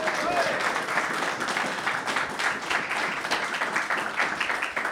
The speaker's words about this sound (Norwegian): Det snør og regner og blåser i Nordmarka i dag. Jeg syns dere skal gi dere selv en applaus, folkens. Fantastisk hyggelig å se dere.